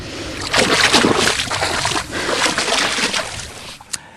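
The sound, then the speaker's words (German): Water sloshing and splashing in steady, repeated surges as someone wades through ankle-deep water in the Red Sea in February, continuous, ending with a brief sharp splash. “Ja, ich stehe jetzt also im Februar im Roten Meer.”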